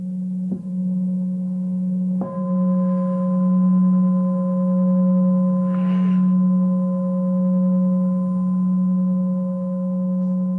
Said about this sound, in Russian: Прям сконцентрируйтесь на нем. И поиграйте себе 3-5 минут. Очень важно, когда вы почувствовали, что вы мыслями улетели куда-то вот звука, возвращаться обратно в слушание чаши, к слушанию этого звука.